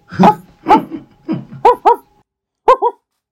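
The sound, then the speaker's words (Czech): A person loudly imitates a barking dog with a string of about seven voiced woofs, first spaced out, then in quick pairs, with a short pause before the last two. “zavolej si toho psa, zavolej si toho psa.”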